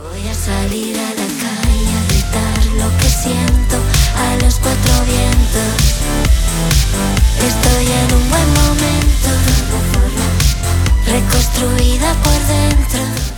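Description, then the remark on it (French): A Spanish-language pop song plays at full, steady volume throughout, with a dense band mix and a driving beat. Nobody talks over it. “Alors d'habitude on continue à se parler sur la musique d'avant, mais là on va bah l'arrêter.”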